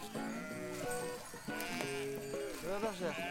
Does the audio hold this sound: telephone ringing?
no